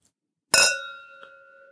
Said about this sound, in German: Und wir stoßen mal an auf äh, oh, die Champions League.